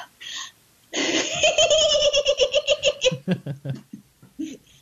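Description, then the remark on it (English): A human voice imitates a dolphin with a loud, high-pitched squealing trill of rapid pulses, which slows into separate clicky chirps before trailing off. “Very dolphin like.”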